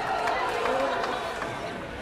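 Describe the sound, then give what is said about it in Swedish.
A steady wash of crowd noise from many people moving at once, some walking and some running, some with prams or walkers, with faint footfalls and scattered voices blending into a continuous, fairly loud outdoor bustle. “Ja, nu springer alla, alla människor. En del går, en del springer.”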